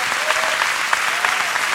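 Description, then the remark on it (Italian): Steady applause from a theatre audience at the Teatro Franco Parenti in Milan, a dense wash of many hands clapping at a constant loudness with a few sharper claps standing out, and a faint voice threading through underneath. “Ma soprattutto continuate questo applauso per voi che avete riempito le serate qui al Teatro Franco Parenti.”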